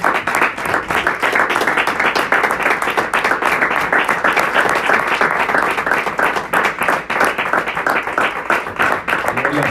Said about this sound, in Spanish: Gracias le damos al Señor. Démosle un aplauso al Señor Jesús, hermanos.